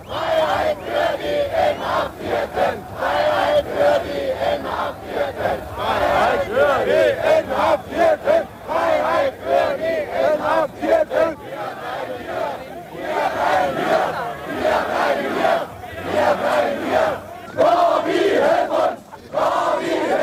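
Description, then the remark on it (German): A large crowd of demonstrators in East Berlin chants slogans in unison during Soviet leader Gorbachev's anniversary visit, loud and continuous, with rhythmic rising shouts and a dense roar of many voices throughout. “Hier ein Zusammenschnitt der wichtigsten Demonstrationsrufe.”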